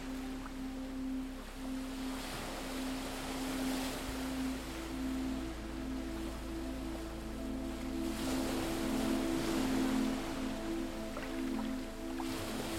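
Soft waves wash onto a deserted beach in slow, repeated swells, a steady hiss of surf rising and falling beneath a sustained low, humming drone. No one speaks.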